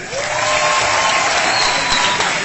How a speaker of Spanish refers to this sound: Uno, dos, tres. ¡Salud! aplauso para ustedes.